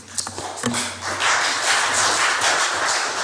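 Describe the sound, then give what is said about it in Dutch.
Sustained applause in the Statenzaal, a provincial council chamber, after a speech: many hands clapping together in a dense, steady patter that swells quickly and holds at a fairly loud level, with no one speaking over it. “Er klinkt applaus in de Statenzaal.”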